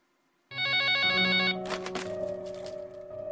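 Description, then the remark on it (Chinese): A telephone rings loudly late at night with an incoming call from a woman, after a brief quiet start, a bright, tonal electronic ring that shifts pitch partway through, with a few crackly bursts, then keeps sounding steadily. No one speaks. “这天深夜，我接到一个女人的电话。”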